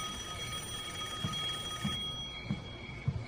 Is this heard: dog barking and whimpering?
no